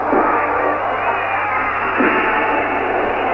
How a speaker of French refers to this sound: Cette première super journée à Alger s'annonce, comme vous le sentez, extrêmement mouvementée. La foule siffle, elle hurle, elle jette des morceaux de fer sur les CRS.